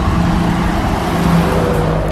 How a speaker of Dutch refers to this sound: Het ligt in de haven van Gent tussen de windmolens en loodsen en ik ben de enige fietser tussen allemaal vrachtwagens.